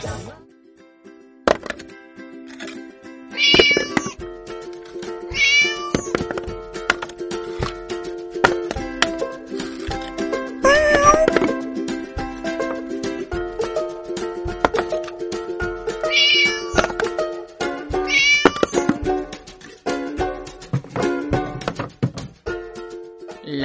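A cat meows several times, with drawn-out, rising calls spaced every few seconds, heard clearly over a steady, busy background of other sounds.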